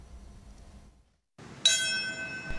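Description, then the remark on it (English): A single large memorial bell strikes clearly and rings on with a sustained, shimmering tone over faint outdoor ambience, following a brief moment of near silence, at a September 11th anniversary ceremony at Ground Zero in New York. “Bells rang and a moment of silence was held at Ground Zero in New York at 8:46 a.m.”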